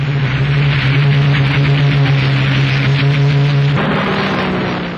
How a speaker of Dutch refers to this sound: Ja, prachtige geluiden. Je hoorde daar allerlei uh, motorgeluiden door elkaar heen. Eh, ik meende ook een Rolls Royce Merlin te herkennen van de Spitfire. Een iconisch vliegtuig.